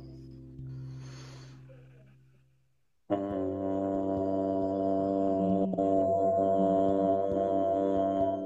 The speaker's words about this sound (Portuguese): E que possamos entoar pela primeira vez o som vocálico OM. Pela primeira vez, inspirar.